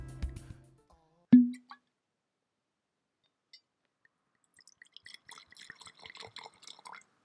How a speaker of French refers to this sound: J'ai ouvert une bouteille, versé quelques centilitres d'un liquide ambré dans un verre au ventre arrondi que je viens de caler là, dans le creux de ma main.